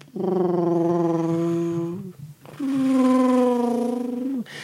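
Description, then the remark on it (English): A voice hums two long, steady droning tones, each about two seconds, imitating airplanes passing overhead, the pitch sagging slightly as each drone fades out. “as like planes seem to be flying all around and uh, above.”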